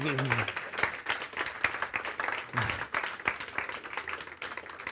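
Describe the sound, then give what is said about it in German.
An audience at a church service applauds to welcome someone who has just arrived, dense and steady clapping filling the whole stretch, with a few voices mingling underneath the claps. “Auch nochmal ein Applaus.”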